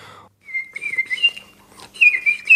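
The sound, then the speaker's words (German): A person whistles through pursed lips in a wavering high tone with a short pause before a brighter, warbling second phrase; no one speaks. “Man muss es wirklich üben, indem man tagelang versucht und jeder hat eine andere Zunge und man muss da einfach seine Lippen spitzen und irgendwann klappt's.”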